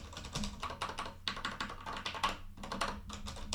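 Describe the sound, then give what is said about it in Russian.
Rapid, steady typing on a Kinesis Advantage keyboard, a large, ergonomic, almost split mechanical keyboard; a dense run of crisp, clacky keystrokes with only brief pauses between bursts. “Но сам кайфуешь, потому что это кинезис, кинезис advantage.”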